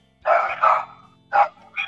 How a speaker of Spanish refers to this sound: Eh, y ya tú sabes, los perros de los vecinos están en sintonía aquí.